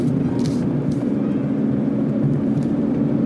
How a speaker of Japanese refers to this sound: ちょうど今、えー、と運転しながら録音をしてますのでちょっと、えー、車の雑音が入ってるかなと思います